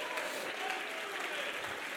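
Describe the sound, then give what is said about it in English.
An audience claps and applauds steadily, a dense, even wash of many hands with no pauses, holding a constant loudness from start to finish and no clear voices standing out. “Come on, jump to your feet and clap your hands and shout, God is for me.”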